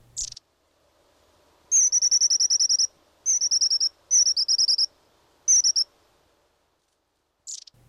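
Long-tailed tit calls in four rapid trilling bursts, high-pitched, separated by short pauses, over a faint low background hum with no voices.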